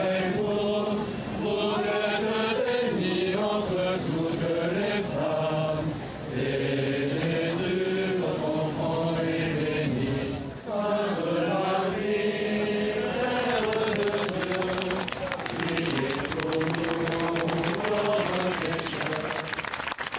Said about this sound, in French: des chants et des applaudissements là, qui saluent votre départ, le départ des camions de pompiers.